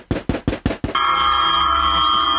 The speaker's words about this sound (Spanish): toque la puerta, toque la puerta.